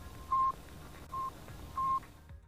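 The Sputnik satellite's radio beacon beeping from its transmitter: three short, steady electronic tones at an uneven pace, sitting over a constant low hiss of static, moderately faint and with no voices.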